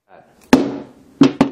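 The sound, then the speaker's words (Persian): A hammer dropped from a few inches onto a smartphone in a durability test gives three sharp knocks with a brief hard ring: one impact, a pause of about half a second, then two quick hits in succession; the drops leave no effect on the phone. “خیلی عالی این یک چکش یک و دو هیچ اثری نداشت”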